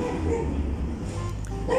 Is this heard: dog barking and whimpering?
yes